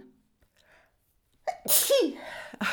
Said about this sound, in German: Sorry, jetzt musste ich doch mal niesen.